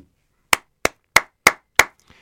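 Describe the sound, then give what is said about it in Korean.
Five crisp hand claps in a steady, evenly spaced rhythm, each one sharp and loud with a quick decay, and no voices alongside. “박수를 보내고 싶은 것이다.”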